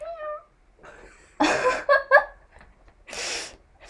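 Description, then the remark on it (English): A person imitates a cat, starting with a short, rising meow, then several breathy, hissing bursts and squeaky mews, moderately loud, with no talking. “that was …. We don't actually have a cat.”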